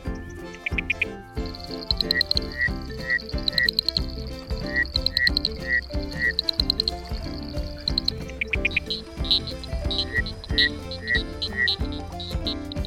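Rhythmic frog croaks repeat in quick, evenly spaced bursts over a bright, steady musical backing, with a high chirping trill running alongside; the croaks come in two loud runs.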